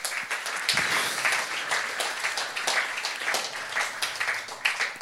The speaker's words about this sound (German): wir dürfen ihn mit einem Applaus hier bei uns willkommen heißen.